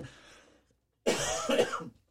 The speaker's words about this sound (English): So if I'm coughing, I'm trying to hit the cough button, but I can feel one coming on already.